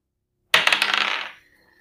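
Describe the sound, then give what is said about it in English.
In a tabletop role-playing game, a die is tossed onto a hard table for a roll to hit. It lands with a sharp clatter followed by a quick run of bright tumbling clicks that settle and fade within about a second. “Okay, roll to hit.”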